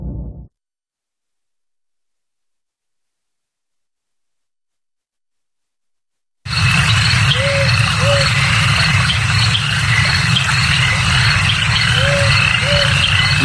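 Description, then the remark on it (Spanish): After a short burst and several seconds of silence, a dense marshland ambience rises: steady frog croaking and insect chirring fill the air, with occasional hoot-like calls. “Los terrenos pantanosos como este en el que estamos siempre tienen un punto inquietante.”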